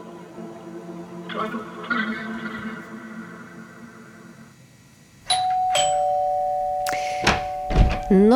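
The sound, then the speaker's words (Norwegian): A doorbell chimes with a sustained, ringing tone, then rings again with a few sharp metallic strikes and a lingering hum, with no talking. “Bare troppa opp og ringte på døra helt uten å avtale på mobilen på forhånd?”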